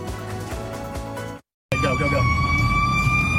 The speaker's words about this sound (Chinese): 警报声不绝于耳，车窗前方就是惊悚龙卷风。